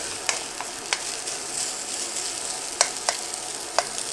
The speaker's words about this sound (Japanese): で結構まあ強めの火でガンガン炙ってですねもう煙が立ち上るぐらい炙ったフライパンにぶっ込むなんかいい音がしたのは最初だけですね あとは大して音はしませんね